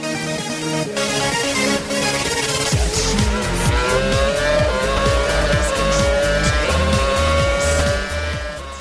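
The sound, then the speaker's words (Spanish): A Red Bull Formula 1 car's engine screams loudly and continuously, pitch climbing steadily through the gears with rapid rhythmic pulsing and some tire noise, no voices present. “¿Cómo suena ese Red Bull, eh?”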